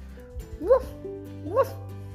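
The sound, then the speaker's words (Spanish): Two short, high-pitched yapping barks, like a small dog, come about a second apart, moderately loud, apparently voiced by a person imitating Lola, a little dog in a story being told. “Y Lola, la perrita, le dijo,”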